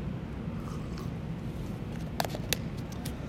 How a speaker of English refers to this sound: take a sip of my coffee